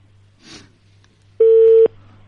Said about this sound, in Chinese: 那要不然现在接通他电话吧，接通他电话 他电话 啊，接通他电话，看看他什么意思吧。把电话告诉导播，然后接通电话